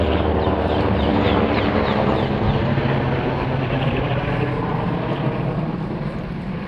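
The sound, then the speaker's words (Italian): A loud, steady helicopter engine roar with a throbbing rotor drone fills the whole stretch, holding constant before easing slightly toward the end. “Ringraziamo l'elicottero”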